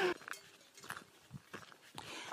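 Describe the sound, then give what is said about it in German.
A few cows graze peacefully on the Rodenecker Alm alpine pasture in so-so weather: soft, irregular tearing and munching sounds with occasional shuffling steps, quiet and unhurried, with no voices. “Da hört man ein paar Kühe. Die fressen ganz friedlich.”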